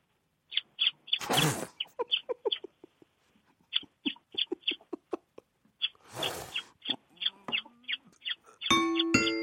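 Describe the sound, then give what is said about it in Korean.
A courting bird call of rapid, high-pitched chirps repeated in quick bursts, twice interrupted by a rush of noise, then a bright bell-like ding rings out at the end. “자, 구애하는 새 소리 들어보겠습니다.”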